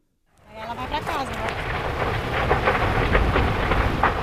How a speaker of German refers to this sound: Und das Feuer kommt. Es ist kein Unterholz, was da brennt. Es ist ein Stück dichter, noch stehender Regenwald. Die Flammen donnern, brausen und schreien, schleudern Bäume meterhoch in die Luft.